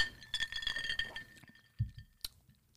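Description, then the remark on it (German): Glasses of bottled cocktails, including a margarita, clink together in a toast, a cluster of bright ringing chimes with sustained tones at first, followed by a few softer knocks and sharp taps. No one speaks. “Ähm, also, cheers.”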